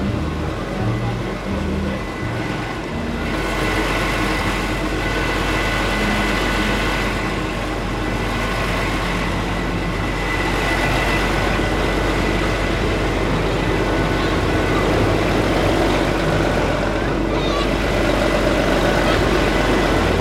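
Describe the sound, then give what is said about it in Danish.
The engine of a municipal fire service fire truck idles steadily with a deep, continuous rumble, loud, holding level for the whole stretch, with faint background voices now and then, at a Christmas tree lighting in Valsø. “Prøv at høre, prøv at høre brandbilen en gang.”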